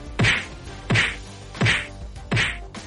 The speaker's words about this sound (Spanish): Buenos días, estamos en el momento bofetada Lagar al impuesto de Sánchez.